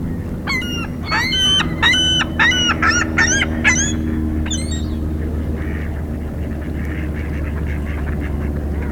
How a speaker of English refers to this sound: Some ring-billed gulls calling here, lots of ducks. Mostly mallards, but there's a couple widgeons, a pintail, some shovelers.